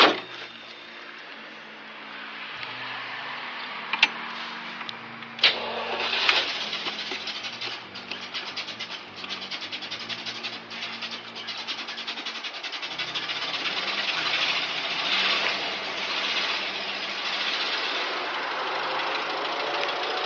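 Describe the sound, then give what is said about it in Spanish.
A car engine in a garage catches after a few sharp clicks and settles into a steady, rumbling idle that runs on evenly, with no voices, as the car is readied to drive to the Ritz hotel in New York. “Sí, sí, Bajo a la cochera y voy preparando el auto.”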